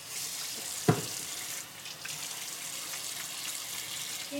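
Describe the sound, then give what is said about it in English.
Water runs steadily from a tap in an apartment as hands are washed, with a broad hiss, and a brief knock sounds near the start as hands move under the stream. Continuous, with no talking. “So I'm washing my hands.”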